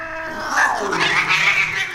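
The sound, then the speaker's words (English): Agitated cats yowl and caterwaul in overlapping, wavering cries that rise and fall, loud, filling the moment with shrill, drawn-out wails as someone yells at them. “Ooh, mm, out of here, damn cats!”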